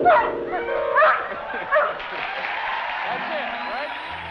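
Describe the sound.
A puppy named Alfie yips and howls in a high, wavering voice while playing a few clanking piano notes with his nose, the whines rising and falling while a crowd murmurs and claps in the background.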